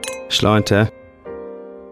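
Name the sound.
wine glasses clinking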